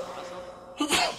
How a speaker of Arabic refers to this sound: يرحمك الله